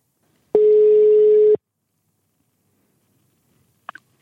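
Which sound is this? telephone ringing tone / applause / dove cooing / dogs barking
telephone ringing tone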